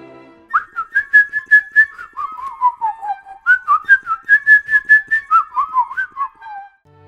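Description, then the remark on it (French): A person whistles a lilting, bird-like melody in reply to a bird's song, the notes rising and falling in quick repeated phrases, clear with no talking. “qui savait déjà siffler, voulut essayer de répondre au chant de l'oiseau.”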